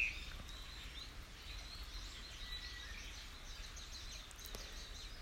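Quiet woodland ambience in the hills of Hirayama Park in Zushi, Japan, with faint, scattered bird chirps over a low steady rumble and soft rustling, continuous with no voices.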